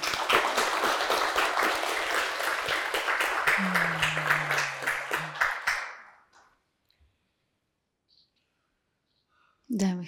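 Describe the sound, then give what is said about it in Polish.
A crowd applauds loudly and steadily for about six seconds, with a short vocal sound rising over the clapping, then it dies away into near silence before a voice begins. “Brawo, dziękujemy.”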